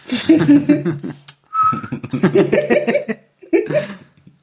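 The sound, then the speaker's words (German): A brief, steady whistle sounds once at a single pitch, between stretches of voices talking and laughing. “Ich, ich höre jetzt das Pfeifen, ja.”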